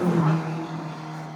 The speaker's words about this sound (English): Okay, that uh, car was definitely breaking the speed limit there, as I'm sure you heard.